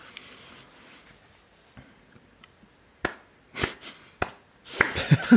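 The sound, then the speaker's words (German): A few sharp, isolated hand claps ring out after a quiet stretch, then break into a quicker flurry of clapping at the end, fairly loud with no talking. “Digga, da bleibt mir nichts anderes, außer absolut zu klatschen, Digga.”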